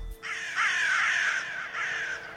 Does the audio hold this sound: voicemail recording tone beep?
no